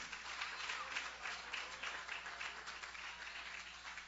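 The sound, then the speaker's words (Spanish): An audience gives a loud round of applause to God: a dense, steady wash of many hands clapping at once, holding at an even level throughout with no voices standing out. “Mando a la Dámelo un aplauso fuerte a Dios en esta hora.”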